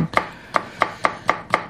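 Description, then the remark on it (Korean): A knife chops a radish on a cutting board, six sharp knocks in a steady, slightly uneven rhythm, each with a bright woody crack and no voices. “자, 오늘 보물소리, 도마에서 무 써는 소리입니다.”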